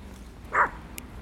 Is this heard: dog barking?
yes